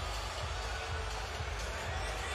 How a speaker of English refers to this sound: After video review, the call on the ice is confirmed. We have a goal. Wow. Holy smokes. Wow. Really? My goodness. And the uh, crowd is reacting again, watching it up on the scoreboard.